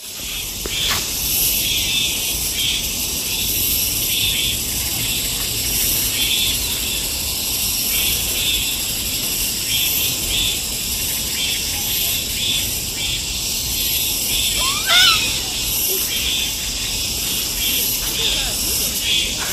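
Cicadas drone loudly and without a break, a dense high-pitched buzzing chorus that pulses slightly over the whole stretch, with no voices.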